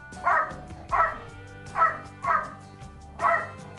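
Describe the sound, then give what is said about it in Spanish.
A small dog barks five times in a steady rhythm, sharp high-pitched yaps with short pauses between them, over a faint low background hum. “Son bastante ladradores.”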